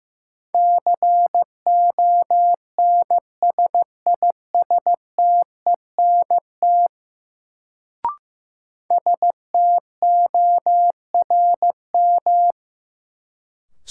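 A steady mid-pitched Morse code tone keyed in quick dots and dashes at 15 words per minute, sending a new-word drill of sentences from the top 1500 words, with a brief click during a short pause before the beeping resumes. No voices.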